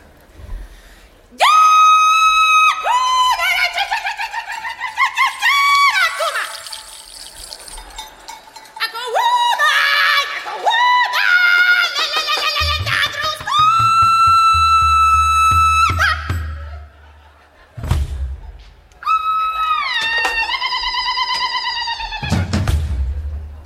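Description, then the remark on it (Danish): A Norwegian cow herding call: a loud, high voice sings long held notes with swooping slides in several separate phrases, with low rumbling thumps beneath one stretch and no talking. “And so our cow call isn't quite as elegant.”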